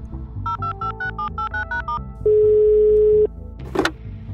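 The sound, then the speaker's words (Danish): A quick run of keypad dialing beeps, then a single loud, steady ringing tone of an outgoing phone call that lasts about a second before a brief click. No one speaks. “Men så er det heldigt, at jeg derimod ved lige præcis, hvem på min telefonliste vi skal ringe til.”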